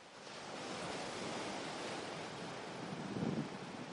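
Steady roar of sea waves breaking on the shore, a continuous broad wash of surf with a slightly stronger surge near the end, no voices present.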